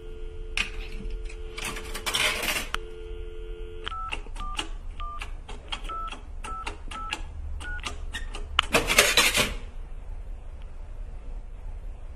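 A coin clatters into a payphone at a roadside telephone kiosk beside a small stall, in snow, over a steady dial tone, then a quick run of about a dozen touch-tone beeps dials a number, ending in another metallic rattle, fairly loud.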